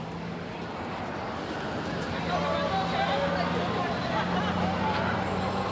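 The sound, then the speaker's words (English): A busy city street, Greenville Avenue, heard while walking along it on a cool Friday evening: a steady wash of passing traffic and a low engine hum, faint murmuring voices mixed into the constant background roar. “I'm walking down Greenville Avenue right now, headed to a place called the Truck Yard, where I'm meeting some friends there.”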